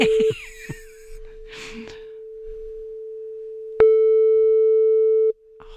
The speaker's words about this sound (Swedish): Ska vi se här, nu ringer det här. Fast jag brukar inte ringa honom så här tidigt kan jag säga.